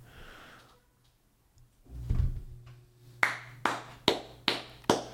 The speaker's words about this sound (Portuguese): Palmas reais pra tua. Eu sei que essa palma parece irônica. Parece é, irônica. Parece, tipo, nossa. Foi grande bosta, hein? Roda, mas realmente é uma palma que, pô, tá legal pra caralho.